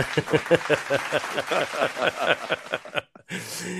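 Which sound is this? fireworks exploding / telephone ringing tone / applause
applause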